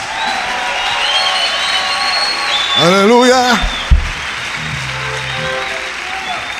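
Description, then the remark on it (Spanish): An audience at Casa de Libertad claps steadily as applause to God, a dense, loud wash of many hands lasting the whole time. A voice rings out over the applause partway through, and a single low thump lands midway. “Santo, si usted está de acuerdo conmigo, dele un aplauso a Dios.”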